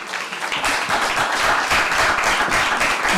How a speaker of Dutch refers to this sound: Applaus, applaus komt er zelfs voor, dus dat is wel iets.